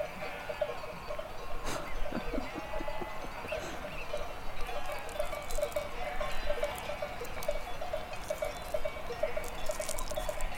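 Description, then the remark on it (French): Cowbells on grazing mountain livestock clank irregularly and overlap in a steady, bright jangle with a ringing metallic tone, a soft constant backdrop with scattered louder clanks, and no voices. “Les cloches me réveillent, tiens, on dirait que tu bouges.”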